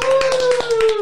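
Brisk applause of fast, even claps, roughly ten per second, loud and steady throughout, with a held tone that slowly drifts downward in pitch running underneath.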